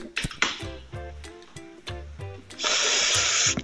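Sharp clicks and a Zippo lighter flick, followed by short puffs and sucking draws on a pipe and cigarette, ending in a long, steady hissing exhale.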